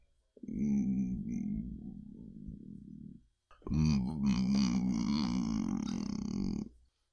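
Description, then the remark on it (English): A voice makes two long, guttural, snorting grunts like a pig, the first low and rumbling, the second rougher and louder after a short pause, with no other talk. “They sound just like Balerian space pigs.”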